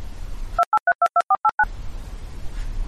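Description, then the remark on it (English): A rapid run of eight short electronic beeps, like telephone keypad tones, plays loud and clear as an editor's tone marking where a segment of recording was removed, cutting through a low background hiss that drops out while they sound. “Whenever this happens, you'll hear our editor's tone”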